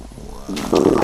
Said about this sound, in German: War das ein Bär? Nein, nein, mein Freund, mitnichten. Das war mein Magen. Er brummt nach Abendbrot.